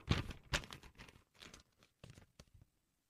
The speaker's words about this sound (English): This is just being passed in. Let me open the envelope.